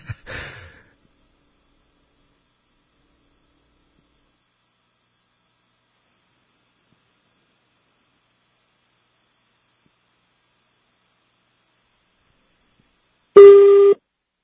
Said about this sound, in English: Okay, that's a Thai ring.